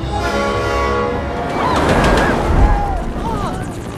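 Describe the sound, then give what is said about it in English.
In a film clip set in Metropolis, a runaway train being chased rumbles loudly while its horn blares a sustained, steady chord at the start, then gives way to clattering, roaring rail noise with faint squeals and indistinct voices underneath. “And why are we chasing a runaway train?”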